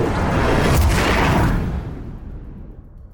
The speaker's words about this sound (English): until you find yourself in a crashing, huge explosion of sound.